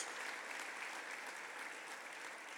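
Steady applause offered to those joining the gathering, a dense wash of many hands clapping at an even level with no pauses, and no voices standing out above it.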